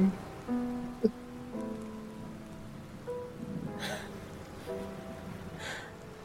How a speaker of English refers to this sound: Aww, it's raining.